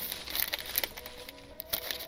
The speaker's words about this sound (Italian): La busta con la spesa rumoreggiò mentre Anders ci frugava dentro, controllandone il contenuto.